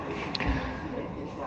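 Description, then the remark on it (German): Dense, steady background hubbub of a crowded, very large indoor riding arena with spectators and seating on two sides and three horses in the hall, with indistinct murmuring voices and reverberant noise, plus a brief dull thump near the start. “Und an zwei Seiten sind Menschen und Sitzplätze und ihr hört es im Hintergrund, es sind sehr viele Hintergrundgeräusche.”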